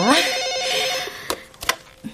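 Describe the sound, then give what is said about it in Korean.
A telephone at an elementary school rings in the morning with a rapid trilling electronic warble for about a second, followed by a few short clicks and knocks, like a receiver being picked up. “아, 아침부터 학교로 걸려오는 전화 무서운데.”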